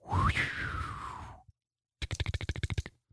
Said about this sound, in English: That was the winter sound effect, followed by the tapping of keys indicating coding.